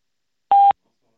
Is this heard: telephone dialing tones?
yes